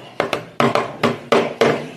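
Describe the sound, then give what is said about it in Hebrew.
Six sharp knocks on a wooden surface, spaced in loose pairs over two seconds, fairly loud, each with a short hollow ring, demonstrating someone knocking on a door. “כן, יש כאלה דופקים בדלת, בהתחלה זה מתחיל לדין, דפיקה.”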